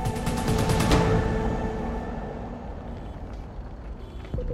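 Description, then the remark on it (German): The air brakes of school bus 963, driven by Kevin McKay through a wildfire burning on both sides of the road, hiss with a sharp burst of release, then the deep rumble of its heavy diesel engine idles and churns steadily, with no one speaking. “Das Feuer wütet auf beiden Seiten der Straße, aber der Bus kommt kaum voran.”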